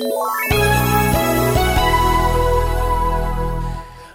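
A short, bright radio jingle: a few quick chord hits building into a sustained, full-sounding musical flourish that rings out loud and close for about three seconds before fading, with no voices.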